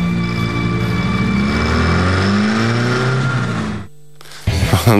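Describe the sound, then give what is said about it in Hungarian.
A car engine revs loudly and steadily for several seconds, rising in pitch, as the car is driven into the sea, then cuts out abruptly into near silence before a short burst of noise returns. “Nudli azt mondja, gyerünk fürödni, majd belehajtja az autót a tengerbe.”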